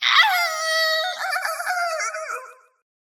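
A loud, shrill raptor scream rings out alone, a single piercing cry that holds for a couple of seconds, wavering and rasping before cutting off abruptly.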